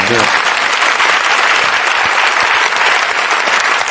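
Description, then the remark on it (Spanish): A crowd applauds steadily and loudly, a dense wash of clapping that fills the whole moment without pause, with a brief bit of voice at the very start. “Por favor, un aplauso, por favor.”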